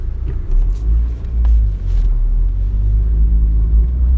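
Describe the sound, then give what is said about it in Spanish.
The very powerful engine of an imported car of German make, with power steering, rumbles steadily and loudly, a deep low growl with slight surges in intensity over a few seconds, no voices present. “Coche de importación de patente alemana, dirección asistida y motor potentísimo.”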